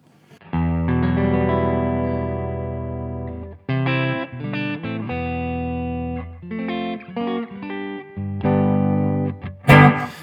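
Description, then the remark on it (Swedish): An electric guitar played clean on its neck pickup, through a tone pedal with a Bass Contour control, plays a warm, full-bodied passage: a long ringing chord, then quicker runs of notes and short phrases, loud and steady, ending with a brief noisy scrape. “ska vi lyssna på den rent först kanske? Absolut. Mm. Så nu är det bara eh, halsmick då.”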